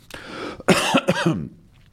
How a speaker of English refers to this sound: Excuse me, I just need to. I was wondering today whether my voice is going to hold out for the whole program, so I'm sorry if I do cough occasionally. Um, I do find it still gets a little irritated.